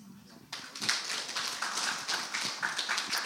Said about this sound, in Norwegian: En applaus.